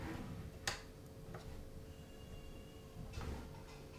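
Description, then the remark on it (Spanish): A motorized garage door opens, rumbling along faintly with a steady low mechanical drone, punctuated by a sharp click near the start and a heavier clunk toward the end, with no voices. “Alguien acaba de abrir la puerta del garaje.”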